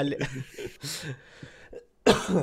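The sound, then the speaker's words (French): A person coughs and clears their throat, with several rough, raspy bursts spaced irregularly over a couple of seconds, ending in one loud, forceful cough, because of something caught in the throat. “Euh, j'ai quelque chose dans la gorge.”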